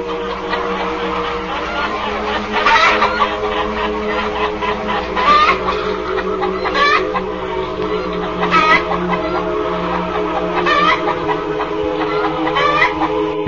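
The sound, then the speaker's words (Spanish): A hen clucks repeatedly, with sharper squawking bursts every couple of seconds over a steady, busy background hum. The sound is fairly loud, and no one speaks. “¿Y quién puso el huevo? Pues la gallina.”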